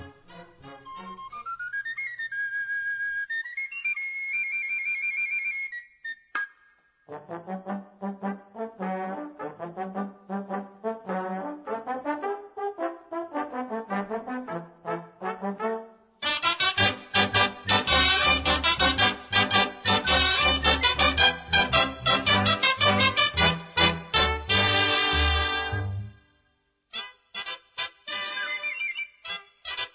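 A sardana played by a cobla band: a lone high pipe opens with a rising melody, then the ensemble joins and builds to a loud, full passage before a brief pause and resumption.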